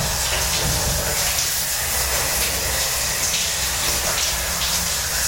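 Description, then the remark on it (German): A shower runs steadily, a loud, continuous hiss of spraying water with slight splashy flickers, no voices, unchanging throughout. “Einfach mal das Duschen genießen.”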